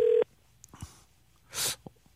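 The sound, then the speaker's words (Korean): A short, loud electronic phone tone sounds at the start as a call is dialed, and cuts off abruptly. Quiet handling clicks and a brief burst of hiss follow, with no one talking. “한번 저186 하나님한테 한번 전화 한번 걸어보겠습니다.”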